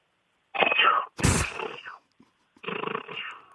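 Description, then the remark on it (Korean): A voice imitates German army machine-gun fire, recreating the Normandy landing battle scene from the film Saving Private Ryan, in three rapid rattling bursts separated by short pauses, fairly loud, with a sharp explosive blast opening the second burst. “예, 그럼 어, 독일군 기관 총소리 내겠습니다.”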